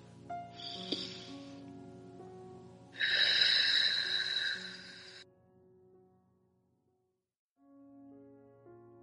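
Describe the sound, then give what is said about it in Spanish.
Over soft background music, a short airy breath in, taken with hands on the heart, is followed by a longer, louder breath out, both clearly audible, before the music carries on alone. “manos al corazón y respiración profunda.”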